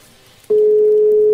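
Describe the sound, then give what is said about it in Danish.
After a brief quiet moment, a loud, steady telephone ringing tone switches on abruptly and holds unbroken to the end, heard while placing a phone call to wish someone a merry Christmas. “Uanset hvad, nu lader jeg gribe telefonen og så ringe til”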